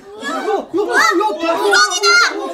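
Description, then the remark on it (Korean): A crowd of children shouting and yelling together, loud, with overlapping excited voices rising and falling continuously for a few seconds, as they cry out about a snake crawling into a house's yard. “그리고 이내 함성을 들었다.”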